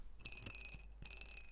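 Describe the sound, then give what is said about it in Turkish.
A tiny yellow smiley-face piece spinning on a mug handle, giving off a faint, thin ringing whir with two soft clicking bursts a moment apart. Quiet, with no talking. “Kulpunda böyle minik sarı bir şey var.”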